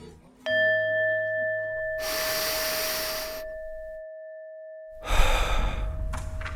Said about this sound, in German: Es geht um Spiritualität und wir atmen. Wir atmen zusammen, um uns erstmal darauf einzustimmen.